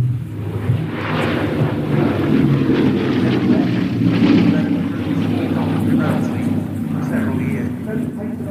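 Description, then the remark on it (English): A Bristol Blenheim bomber, restored at Duxford, flies past, its piston engines droning steadily with a deep, throbbing hum that swells to a peak midway and then eases slightly, with gusty wind noise underneath. “this is a Bristol Blenheim, and here he does the fly past.”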